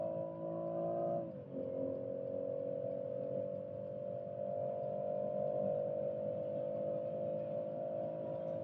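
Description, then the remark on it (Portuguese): A car engine accelerating: a strong, steady droning hum whose pitch drops briefly near the start, like a gear change, then holds loud and even. No voices. “Os carros aceleram muito bem, então.”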